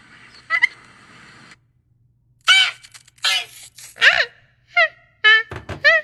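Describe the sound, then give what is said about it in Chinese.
A person imitates a goose, letting out a string of about six harsh, nasal honks in uneven bursts, loud and raspy, with brief pauses between them and no other talk. “听得出来是鹅叫吗？我我学的是是像驴叫吗？”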